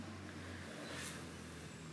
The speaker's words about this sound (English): It's the road she lives on in the background, traffic going past.